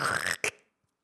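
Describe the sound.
A voice imitates light-coloured trousers ripping at the seat: a loud, raspy tearing burst, a brief break, then a shorter second rip, followed by silence.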